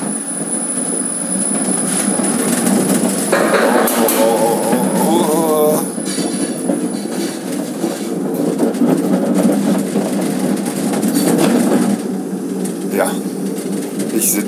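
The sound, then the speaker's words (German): Steady rumbling and rattling of a moving cable car over the Rhine in Cologne, with a wavering metallic squeal midway and a brief high whine near the end, continuous throughout. “Straße in der Seilbahn über Köln, über den Rhein”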